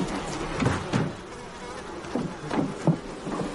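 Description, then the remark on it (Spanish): Bees buzz steadily around beehives as a person in a beekeeper's suit opens and inspects the hives, the bees flying near their face: a dense droning hum with individual insects swelling louder as they pass close by, over a soft background hiss. No voices are present. “De vez en cuando agita su brazo tratando de apartar las abejas que revolotean cerca de su cara.”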